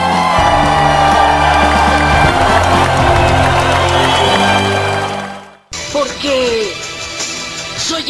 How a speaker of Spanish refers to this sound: El que se escuche fuerte, ¡aplauso!